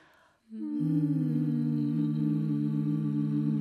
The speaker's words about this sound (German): Und jetzt summen bitte alle auf einem beliebigen Ton.